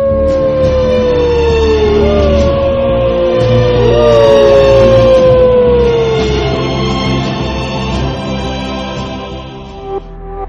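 Wolves howl in long, sliding, mournful tones, several voices overlapping and falling in pitch, loud and sustained for the whole stretch with no one speaking.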